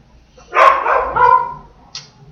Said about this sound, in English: yeah, sorry about the dog.